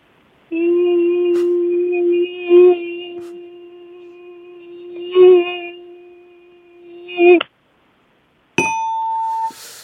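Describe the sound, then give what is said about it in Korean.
Someone hums a mosquito's whine, imitating a single mosquito flying around annoyingly at night as one lies down to sleep: a steady, nasal buzzing tone held for about seven seconds, swelling louder a few times. After a brief silence, a higher bell-like tone rings out. “네, 밤에 자려고 딱 누웠는데. 네. 모기 한 마리가 귀찮게 날아다니는.”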